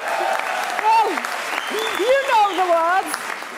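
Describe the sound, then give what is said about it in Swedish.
A large crowd cheers loudly with rising and falling whoops and shouts over steady applause, a dense, continuous roar that lasts the whole few seconds. “det jublet. Vi, om Kim hittar kan vi lyssna på det.”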